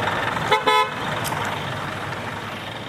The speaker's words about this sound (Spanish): Ahora llegamos a la glorieta de Atocha, que es uno de los puntos más hostiles de Madrid para ir en bici porque hay pues 5 o 6 carriles para cada lado según el tramo. Está llenísimo de coches y estoy aquí esperando detrás de un autobús verde enorme.